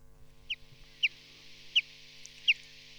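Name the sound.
chaffinch song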